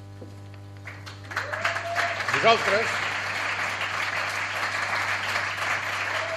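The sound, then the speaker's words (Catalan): Tourists in a museum break into sustained applause that swells after a second and keeps going steadily, with a voice speaking briefly over the clapping and a steady low hum underneath. “Ara, els turistes que hi ha al meu al museu aplaudeixen.”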